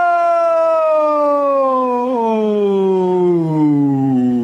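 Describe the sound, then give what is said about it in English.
A man's long, loud scream that slides steadily downward in pitch for several seconds, like someone plunging off a cliff, heard alone with no talking. “and of course my own personal favorite of all time, man falling off of a cliff.”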